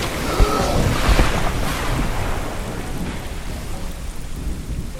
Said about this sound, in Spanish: ¡Uy! Espérate, cuidado. ¡Ay, ay! una ola.